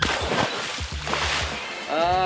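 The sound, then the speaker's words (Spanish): Water splashes and sloshes continuously as someone plunges in for a swim in a heated pool at home, and a brief voice-like tone rises over the watery noise at the end. “Es hora de un buen chapuzón”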